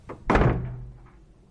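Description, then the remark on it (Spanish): A door slams shut with a sharp, heavy bang, followed by a low rumbling resonance that fades over about a second. No one speaks. “Un grifo abierto. Y un portazo.”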